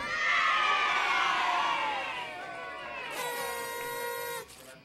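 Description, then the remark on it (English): A loud chorus of many voices yelling at once in a backyard as the lights suddenly come on, sustained for several seconds, with a bright horn-like blare joining in over the crowd before it cuts off. “Suddenly, the lights came on, and a chorus of voices yelled.”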